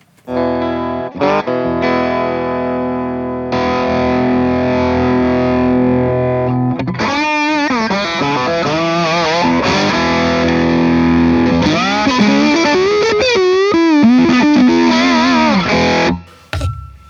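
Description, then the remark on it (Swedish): Loud, distorted electric slide guitar, played on a Stratocaster with gold foil pickups, plays alone: a few sustained, buzzing chords give way to swooping, wavering slide notes that glide up and down before cutting off near the end. “Om du ger mig den där äh, slide-strattan där med goldfoilsen.”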